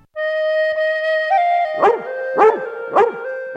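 A hound gives a long, steady whimpering whine, then lets out three sharp barks in an even rhythm, fairly loud, with no one speaking.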